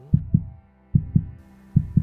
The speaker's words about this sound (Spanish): Latidos que confunden en mi cuerpo lo grave con lo agudo, la salud con la muerte,